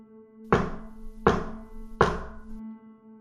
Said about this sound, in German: Richtig, du hörst, wie es in der Haupthalle laut an die Tür pocht.